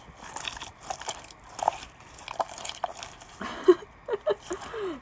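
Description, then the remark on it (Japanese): Homemade slime being squished, giving a series of wet, sticky squelches and small crackling pops in irregular bursts, with no talking over it. “スライムを作って遊んでいる”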